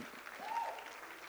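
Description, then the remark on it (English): Audience applause as panelists are welcomed onto a panel, a dense, steady patter of many hands clapping at once, fairly quiet and even throughout with no speech over it. “You can clap better.”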